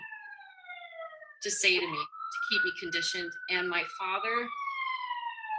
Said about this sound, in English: I'm sorry about the siren. Can you hear that? That's okay.